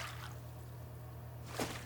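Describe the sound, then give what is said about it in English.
Faint water sloshing over a low steady hum as a person steps into warm, fragrant bath water and eases fully into the tub, with one brief, slightly louder splash near the end. No voices. “Your feet descend into the warm and fragrant water before you ease yourself completely into the tub.”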